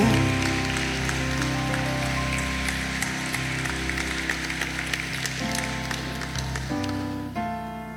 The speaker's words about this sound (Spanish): Vamos a darle un aplauso al Señor y celébrelo.